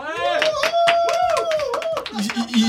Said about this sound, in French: Et j'en profite pour annoncer que pour la première fois dans ce podcast, nous avons un public qui est derrière et qui va applaudir.